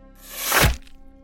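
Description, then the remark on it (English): A rising airy whoosh builds over about half a second, then ends in a single sharp thunk of impact as a crossbow arrow is fired and strikes a person in the chest. No voices. “With that, he aimed the crossbow at Lauren and let an arrow fly.”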